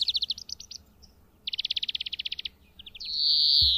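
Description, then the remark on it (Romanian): A European greenfinch sings: quick bursts of bright chirps, a long rapid trill of repeated notes, then a few short notes ending in a drawn-out wheezy buzz. “Florintele are două tipuri de cântec. Unul constă din fluierături melodioase”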